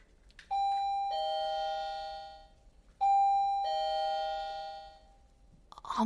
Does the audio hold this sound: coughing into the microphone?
no